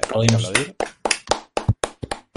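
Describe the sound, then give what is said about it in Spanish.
A brief spoken word gives way to a run of about eight sharp hand claps, fairly loud and slightly uneven in rhythm, each a crisp slap followed by a short gap. “por cierto, aplauso, hay que aplaudir.”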